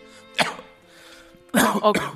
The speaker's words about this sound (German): Okay, äh, ich lasse dir noch ein bisschen Raum zum Husten. ist ja auch wichtig bei der Begrüßung.